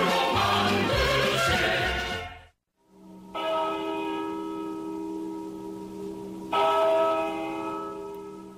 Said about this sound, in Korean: 1908년 서울 종각에서 정호를 알리던 종소리가 사라집니다.